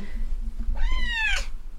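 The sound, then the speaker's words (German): A single drawn-out cat meow, fairly loud, rising then falling in pitch over about two-thirds of a second, with a low steady hum and faint room noise underneath. “Katze löscht jetzt ja nicht die Aufnahme.”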